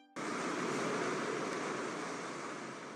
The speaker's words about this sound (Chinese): 收集到了风声。